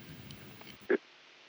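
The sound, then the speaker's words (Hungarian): A hissy, muffled phone line from a listener calling in to a radio show carries faint murmuring, then a short blip of tone cuts in and the call drops, the signal abruptly thinning out and leaving only a dull, empty hum. “Most egy kicsit elbeszett a vonal.”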